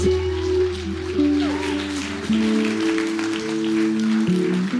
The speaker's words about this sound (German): Gib mal einen großen Applaus.